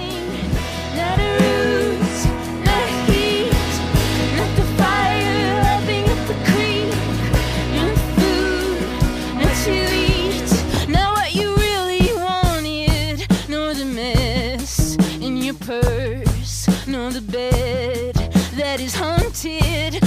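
A full band song plays throughout, with steady bass, strummed guitars and percussion, and a sung vocal melody that grows more prominent in the second half, loud and close.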